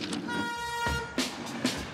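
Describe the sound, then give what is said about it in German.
A train on the Steigerwaldbahn line between Schweinfurt and Kitzingen, over 30 years ago, rumbles past with a sustained horn toot, followed by rhythmic clacking of wheels over rail joints, loud, with no voices. “So hat es bei der Steigerwaldbahn zwischen Schweinfurt und Kitzingen ausgesehen.”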